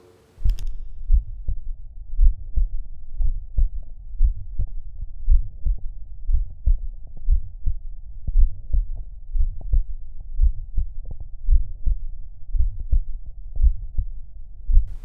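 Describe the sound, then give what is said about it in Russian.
A muffled stethoscope recording from an 18-year-old pregnant woman at the typical auscultation point for Still's murmur: a steady, fairly quick heartbeat with a soft, low Still's murmur humming between the thumps throughout. No one speaks. “18-летняя беременная женщина. Типичная точка аускультации шума стила.”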